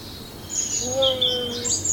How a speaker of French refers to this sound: Ça doit être un gros pigeon.